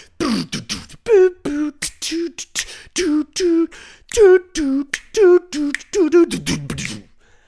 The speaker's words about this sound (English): You hear that 80s percussion? I mean, that shit in the beginning goes.